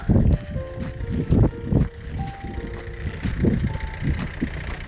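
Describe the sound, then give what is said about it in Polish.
Busy city street ambience heard while hurrying on foot through a city: a steady low traffic rumble with passing engines, faint tonal whines, and irregular thumping footsteps, moderately loud throughout. “Trochę się śpieszę. Idę przez miasto.”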